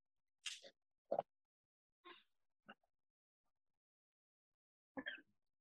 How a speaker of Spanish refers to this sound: se está tragando hielo. Porque tengo que subir la hemoglobina.